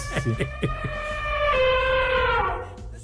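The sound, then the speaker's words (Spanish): A few quick knocks lead into an elephant trumpeting, played as a sound effect for a band: one loud, brassy blare held for about a second, then sliding downward and fading, with no talking over it. “Oye, pon al elefante que ya estaba barritando, ándale.”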